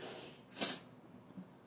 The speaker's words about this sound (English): I'm gonna sneeze. Uh-oh. Sneeze that way. I think I'm allergic to Brambly.